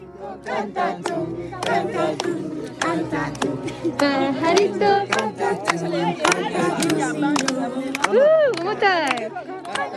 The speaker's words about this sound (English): What you just heard is children singing in Spanish. We were able to teach them songs in Spanish, and some of our translators taught us songs in their local dialect, which is Tshiluba.